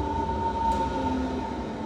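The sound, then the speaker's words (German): An S25 S-Bahn commuter train pulls into the station at Tegel, rumbling steadily with a thick low-frequency roar and a sustained metallic tone whining above it, loud and continuous with no voices. “Und so klingt eine S25, wenn sie in Tegel einfährt.”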